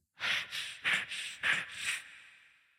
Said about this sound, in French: Notamment beaucoup de témoignages d'anciens gardiens de la maison qui disent avoir entendu des bruits de pas ou qui disent aussi avoir entendu quelqu'un respirer dans le creux de leur oreille.